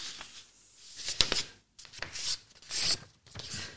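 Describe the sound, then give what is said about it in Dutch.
A sheet of paper being folded, with several crisp, crackling rustles and creases coming in short bursts, separated by brief pauses. “Ik plooi het blaadje.”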